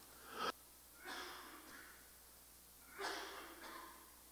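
A few short, breathy coughs, a lingering cough after COVID: one sharp burst followed by a softer one, then a pause before another pair. Fairly quiet, with no talking.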